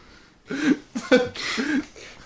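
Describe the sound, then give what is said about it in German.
Someone sneezes right up against the microphone, a loud burst followed by a couple more sharp, breathy blasts over about two seconds, with no talking. “Warum niest du ins Mikrofon?”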